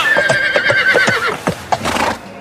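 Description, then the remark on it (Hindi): A horse at a horse race, being ridden by a heavy rider and weighed down under him, whinnies loudly, a long wavering neigh with a sustained tone that breaks into snorting pulses toward the end, with no talking. “अरे बेचारे घोड़े को तो छोड़ दो भीम तुम्हारे भार से दबा जा रहा है हाँ भैया आप बहुत भारी हैं अब घोड़ा ही दुर्बल है तो इसमें मेरा क्या दोष है”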